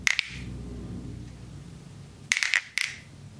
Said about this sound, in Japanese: という形であの演奏というか私が自分で石の音を聞くっということをテーマにあの始めたダンスなんですけどこれをまあしますので私も音を少し奏でさせていただきます